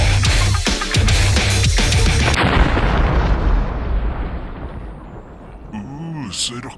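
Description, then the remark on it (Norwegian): A loud, booming explosion sound effect in the rock intro of the show Rockfolk, with a heavy low-end blast that rolls out into a long, decaying rumble, followed by a brief pitched tone near the end. “rocka intro med eksplosjon.”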